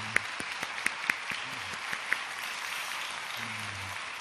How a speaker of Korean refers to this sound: 찬양팀의 찬양 받으시는 하나님께 다시 한번 감사와 영광의 박수 올려드리겠습니다.